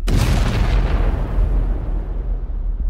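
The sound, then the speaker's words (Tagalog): A car bursts into flames and explodes: a loud explosion erupts with a sharp blast, then gives way to a heavy, sustained low rumble and roar that slowly loses its crackling edge. No voices are heard. “Paglayo raw nila mula sa kotse, ay agad iyong nagliyab at sumabog.”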